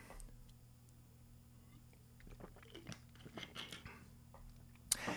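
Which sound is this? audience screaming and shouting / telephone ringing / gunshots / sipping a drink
sipping a drink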